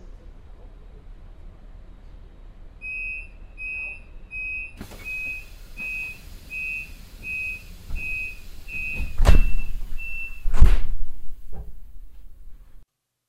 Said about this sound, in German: Vorsicht an den Türen und bei der Abfahrt des Zuges.